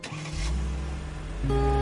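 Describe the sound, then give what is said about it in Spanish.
Miss Hattie's red car: its engine cranks and catches, settles into a steady low rumble, then revs up to a higher pitch as the car pulls away, with no one speaking. “La obesa señora Hattie monta en su coche rojo.”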